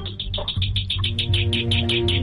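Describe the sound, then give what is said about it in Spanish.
A bird chirps in a rapid, steady series of short, high-pitched notes, fairly loud, over a low background hum. “Eh, mira, el pájaro está diciendo que no.”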